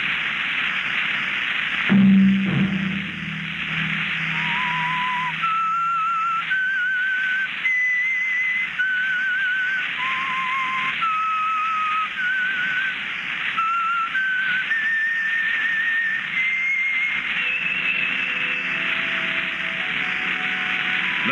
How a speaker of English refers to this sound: that whistle be your signal for the Signal Oil program, The Whistler, each Sunday night at the same time.